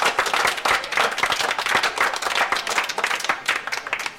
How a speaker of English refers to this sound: Let's hear a big hand